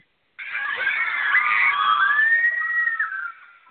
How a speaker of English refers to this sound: So I'm going to step over to kindergarten. We have a lot of kindergartners too. All right, if you're in kindergarten, let me hear you scream.